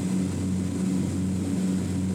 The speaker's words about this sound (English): Baby, do you want to fly the airplane?